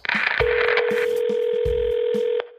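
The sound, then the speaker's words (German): A telephone ring tone heard down the line: one long, steady electronic tone over faint line hiss and soft clicks, ending abruptly as the call is picked up. “Sie gehen aber schnell ans Telefon.”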